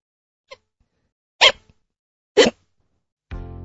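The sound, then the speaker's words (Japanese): Two sharp, loud hiccups about a second apart, each a short abrupt gulp, preceded by a faint click, from hiccups that have not stopped since morning, with a voice starting to speak right at the end. “なんだ、しゃっくりか。ビビった。朝から止まらないんだよ。”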